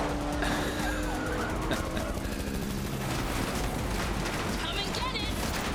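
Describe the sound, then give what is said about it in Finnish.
Dense PlayStation video game combat noise: continuous bursts of gunfire and crashing explosions as police cars are shot up in a city resembling New York, layered over a roaring, chaotic backdrop, loud throughout, with a siren-like tone weaving through at times. “täällä nyt sitten räiskitään erilaisia poliisiautoja Matrixissa New Yorkin näköisessä kaupungissa”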